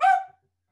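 dog barking

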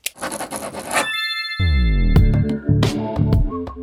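pen scribbling on paper

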